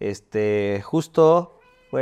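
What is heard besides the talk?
cat meowing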